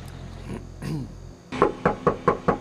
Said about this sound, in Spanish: Nadie respondió cuando tocamos a la puerta de este apartamento en Cayo Largo, donde según una investigación federal operaba una red de tráfico humano.